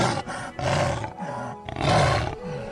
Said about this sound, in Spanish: pero el jaguar, con toda fiereza, lanzó un rugido salvaje.